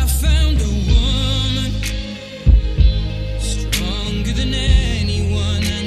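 A romantic pop love song is performed live on stage at a concert while footage of the Queen and Prince Philip fills giant screens, a smooth sung melody with wavering held notes over warm sustained bass at a steady volume, punctuated by a few soft low thumps.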